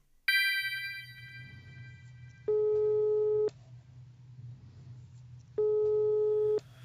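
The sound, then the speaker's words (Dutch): A bright metallic chime opens, then a steady telephone ringing tone sounds twice, each ring lasting about a second with long pauses between, over a low background hum, as a call is placed on the radio show Planeet Buurman. “Vanuit mijn satelliet kan ik met ze bellen.”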